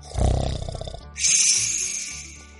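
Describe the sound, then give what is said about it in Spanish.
A single loud snore of a wolf sleeping under a tree in a meadow: a deep rattling rumble on the inhale, then a breathy hissing exhale trailing off, with no talking. “Cuando ya no le quedaban más lágrimas, salió al campo en compañía de su pequeña y al llegar al prado vi al lobo dormido debajo de un árbol, roncando tan fuertemente que hacía temblar las ramas.”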